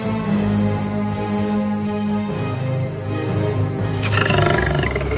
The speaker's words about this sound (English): Then there is a roar. A lion walks out of the woods majestically.